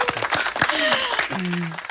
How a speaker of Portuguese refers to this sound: Muito bem, salva de palmas